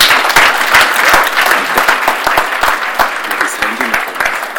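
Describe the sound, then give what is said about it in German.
Loud audience applause welcoming visitors at a Christian gathering: many hands clapping in a dense, steady burst with sharp crackling claps, sustained at high volume throughout without easing off. “Am besten dicken Applaus, gell?”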